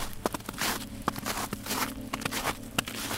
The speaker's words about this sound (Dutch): Mijn taak houdt zeer veel voetstappen in, in het algemeen. Voor films, voor series. En voetstappen in sneeuw. Je moet er toch altijd even moeite voor doen.